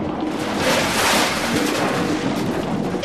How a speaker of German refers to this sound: Im Festsaal präsentierten die Gäste ihre schönsten Kopfbedeckungen, als es plötzlich laut rumpelte, schepperte und knallte.